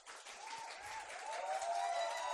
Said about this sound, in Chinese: 哇，希望我的故事能给大家做一些回馈，给自己一个最热烈的掌声。